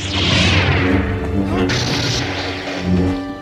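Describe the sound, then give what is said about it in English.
A Star Wars lightsaber hums with a steady electric drone, sweeping through loud whooshing swings near the start and again midway, forceful with no one talking. “Whether or not you're a Star Wars fan is completely beside the point, because you know exactly what a lightsaber sounds like.”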